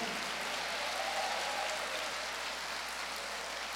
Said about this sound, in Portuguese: Quantos podem aplaudir o Senhor, glorificar o nome dEle, exaltá-lo, meu irmão?